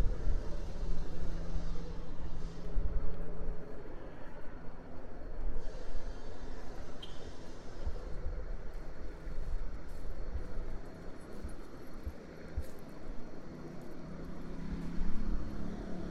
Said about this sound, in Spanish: Y nada, yo iba caminando por la calle pasó un helicóptero y pensé, ¿hace cuánto que no oigo un helicóptero en un podcast?